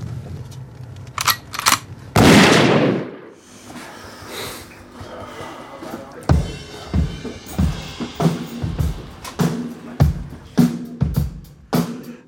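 A few sharp gunshots ring out, then a loud blast with a fading tail, followed by a steady run of rapid, punchy shots over a low rumble, loud.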